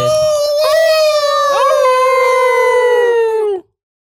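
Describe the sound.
Three human voices let out a long, loud howl imitating dogs, a steady wavering tone sustained for over three seconds before cutting off abruptly into silence.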